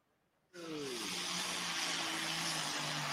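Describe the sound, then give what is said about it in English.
A tractor engine suddenly roars to life as the tractor comes to the line in a horsepower competition, holding a steady, strained drone with a low droning hum and broad rushing noise, without any talking. “There's a tractor coming to line right here.”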